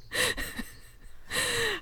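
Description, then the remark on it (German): A baby's noisy breathing, two raspy, snoring breaths with a short quieter pause between them, no talking. “Schnarchendes, atmendes Baby, Kind.”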